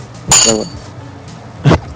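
A coin is flicked in a coin toss to pick the winner of a wrestling match, with a bright metallic ring that shimmers briefly, then lands with a short clink and rattle about a second later. No one speaks during it.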